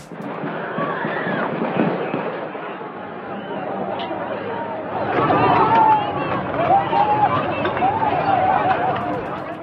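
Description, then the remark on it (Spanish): A frantic crowd at the NFL champions' celebration in Kansas City runs after hearing gunshots near the train station, a dense wash of overlapping screams and cries with footsteps and commotion, growing louder and more urgent partway through, with occasional sharp yells rising above the din. “gente empezó a correr al escuchar el sonido de disparos.”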